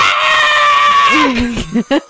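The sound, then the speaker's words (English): A person lets out a loud, sustained high-pitched scream, imitating a character's primal scream of fear as he throws a mirror into the air, for about a second before it drops lower and breaks into short bursts of laughter. “Dak lets out a primal scream of fear and throws his, uh, his mirror that contains his wife, mm-hmm.”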